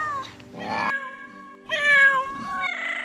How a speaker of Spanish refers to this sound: El llanto de tantos gatos hizo que la gente fuera a asomarse.